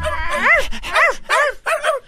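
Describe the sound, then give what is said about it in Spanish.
A dog gives four quick, loud, high-pitched barks or yelps in a steady rhythm, each with a whiny, rising-and-falling tone, and no one speaking. “¿Cómo estás ahí tú y los perros que están al lado tuyo?”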